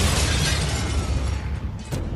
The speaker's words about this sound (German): Der Schuss schlug mit voller Wucht ein. Von Marie Laveau der Zweiten, dem toten Mädchen und dem Sarg blieb nichts über.